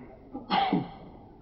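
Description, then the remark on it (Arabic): A single short sneeze bursts out, sharp and breathy, over in under half a second. “رحمك الله”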